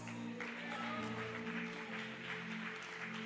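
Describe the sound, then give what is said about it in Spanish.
A crowd claps steadily and continuously, a dense crackling wash of applause that holds at an even level, with a low sustained musical tone humming underneath. “Venga, si va a aplaudir, aplauda con fuerza.”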